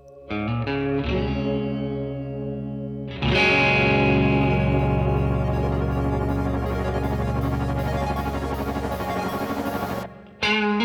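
Electronic music played live: a few sparse synth chords open, then a dense, loud wall of distorted, effects-heavy sound swells in and sustains before cutting off abruptly near the end.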